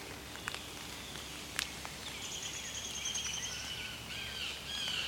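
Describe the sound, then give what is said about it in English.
A downy woodpecker gives a few sharp, high pik notes, followed by thin whistled calls, all fairly faint against quiet outdoor background noise. “downy woodpecker.”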